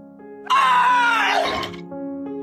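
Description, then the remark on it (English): A single loud, strained yell from an Olympic weightlifter bursts out and holds for about a second before trailing off as they lift a barbell over their head, over a steady background hum. “Enjoy the peaceful sounds of weightlifters yelling.”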